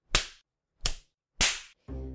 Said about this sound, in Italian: E ultimi, ma non ultimi, abbiamo i punitivi, come ad esempio lo spanking, cioè gli schiaffetti sul sedere, di cui segue un esempio sonoro.